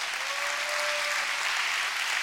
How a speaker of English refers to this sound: I think you ought to clap your hands right now because we're not talking about this in this house.